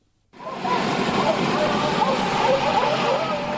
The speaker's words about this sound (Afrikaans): Die helikopter bied sig oor die park om stroopers te identifiseer en te agtervolg.